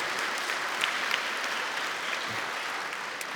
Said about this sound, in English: Can we give them a round of applause today?